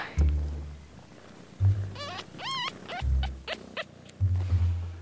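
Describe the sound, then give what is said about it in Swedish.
A litter of three newborn kittens squeak in a few thin, wavering high-pitched mews, a yellow kitten piping, mixed with soft low thumps and rustling handling noises, with no talking. “När jag pratar på den här gula så att den lite piper så då lägger hon tassen på för att den ska få tillbaka till tissen.”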